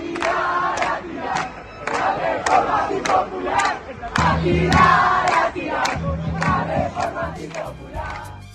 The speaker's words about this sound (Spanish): Escuchábamos ahí al final los cánticos de estudiantes de secundaria y de la Universidad de la República que concentraron también en esta movilización frente al Palacio Legislativo.